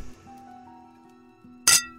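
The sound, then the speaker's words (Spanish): A single bright, sharp clink of glasses rings out near the end, following a stretch of quiet sustained tones with no voices, as three partners toast their recent success in a modern law office on Cuautitlán street in Guadalajara, Mexico. “brindaban por su reciente éxito”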